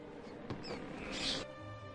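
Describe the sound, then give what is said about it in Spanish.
A rat squeaks in a few quick, shrill bursts, the loudest a brief piercing squeal near the end, with no talking. “Y luego se transformó en una rata.”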